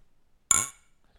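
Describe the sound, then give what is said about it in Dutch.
A single bright clink of beer glasses meeting in a New Year toast, sharp, with a short ringing tail that fades within a fraction of a second in an otherwise quiet moment. The glasses hold a strong beer of about 10% alcohol. “Laten we maar gewoon ouderwets eh, in het nieuwjaar ook gaan eh, klinken.”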